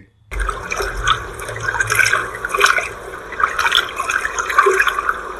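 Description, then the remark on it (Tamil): Water splashes and laps steadily as a boat comes in to the shore, with a low rumbling undertone and no voices. “அச்சமயத்தில் படகு கரைக்கு வந்த சத்தம் கேட்டது”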